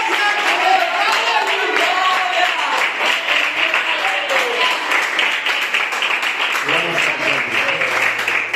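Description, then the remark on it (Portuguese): An audience at a night worship service applauds God steadily and loudly throughout, a dense wash of many hands clapping, with voices and cheers rising within the crowd noise. “Então, se você o ama, eu tenho certeza que você vai aplaudi-lo nessa noite,”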